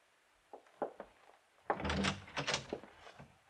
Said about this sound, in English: Just open the door and walk right in. I'm right behind you, see?